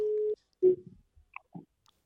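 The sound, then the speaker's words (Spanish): A mobile phone call's ringing tone: one steady electronic beep, then a shorter beep that cuts off, followed by faint clicks and handling noise on the line. “Pues mira, qué casualidad, porque la tengo aquí en el móvil y le, le vamos a llamar.”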